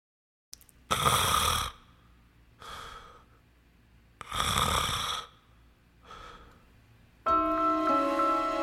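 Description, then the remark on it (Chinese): Two cycles of heavy snoring: loud, rasping inhaled snores, each followed by a softer, breathy exhale. A sustained tonal, musical sound takes over at the end. “我比较恐惧鼾声，你有同感吗？”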